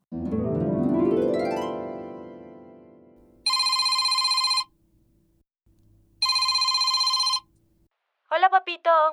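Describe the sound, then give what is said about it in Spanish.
A telephone rings twice as a father calls his daughter, in long, even bursts of bright trilling bell tone, separated by a short pause, after a rising swoosh; a voice briefly starts at the very end. “Pues un papá nos contó que cuando le llama a su hija”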